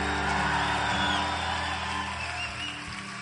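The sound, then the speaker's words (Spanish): An audience erupts in a loud, sustained collective shout of glory, many voices whooping and cheering together in a dense roar that fades slightly toward the end. “hay alguien de un grito de gloria.”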